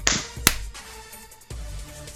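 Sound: hand clap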